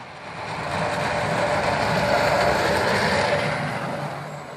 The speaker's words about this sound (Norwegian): Brøyteplogen bråker litt ekstra der den skurer mot bar asfalt på Hønefoss,